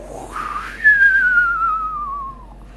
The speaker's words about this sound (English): in the sky, the clouds got thicker and thicker, and the wind started howling.